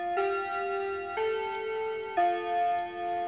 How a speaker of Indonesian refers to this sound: baru juga mulai udah bunyi-bunyi aja tuh jam.